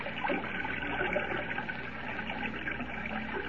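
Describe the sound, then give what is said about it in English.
Steady flowing river water fills the scene, a continuous splashing rush with sloshing movement through it as someone wades ashore. No voices are heard. “Evidently, this river does flow above ground beyond the falls.”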